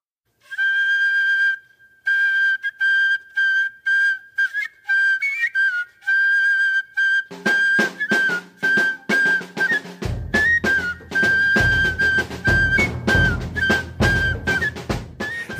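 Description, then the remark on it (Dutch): A shrill fife plays a steady, lilting melody alone at first, then snare rolls and rattles join, followed by heavy, booming bass drum beats pounding in a regular march rhythm, in a straightforward fife and drum piece. “een recht toe recht aan five and drum nummer.”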